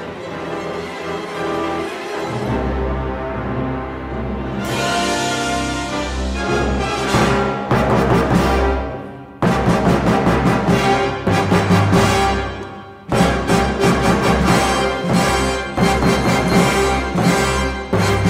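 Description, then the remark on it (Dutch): A loud orchestral passage from the Star Wars: A New Hope film score, with full strings and brass, building in dense, driving bursts separated by brief pauses, with no voices present. “Het eerste gedeelte wat je hoort is uit Star Wars A New Hope.”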